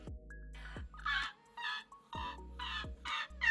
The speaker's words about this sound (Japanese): あなんかかカモメみたいな音してんですけど